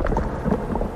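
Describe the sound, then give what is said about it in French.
A newly installed biogas digester (methanizer) on a farm, converting the farm's organic waste into biogas, running with a steady, dense rumbling and churning with faint bubbling, continuous and fairly loud throughout, with no voices. “C'est le son du méthaniseur que Fabien vient d'installer.”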